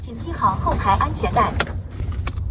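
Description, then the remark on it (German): The onboard computer of a fully self-driving car in Shenzhen, China, gives a brief automated voice announcement asking passengers to fasten their seatbelts, over a steady low cabin rumble, followed by a few sharp clicks near the end. The car drives without a driver in normal city traffic. “Anschnallen bitte, sagt der Bordcomputer. Das Auto fährt ohne Fahrer, vollautonom im normalen Stadtverkehr.”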